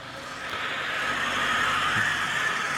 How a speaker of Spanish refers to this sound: Como suena el Toyota este, eh. está un poquito perjudicado. Eh, esos son los tensores de la correa de distribución o de servicio. No sé si ese coche tiene correa de distribución o va por cadena, pero esos son los tensores.